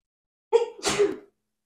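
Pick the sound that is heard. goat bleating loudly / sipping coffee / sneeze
sneeze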